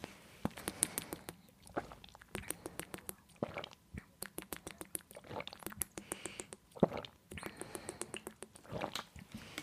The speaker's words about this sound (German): Also ähm, auf jeden Fall jetzt wir machen jetzt alle fünf Wasserschlucke. Wahrscheinlich haben alle gar nicht so viel Wasser parat, dann halt fünf kleine Wasserschlucke. Also mitzählen. Ich hoffe, man hört es wenigstens ein bisschen.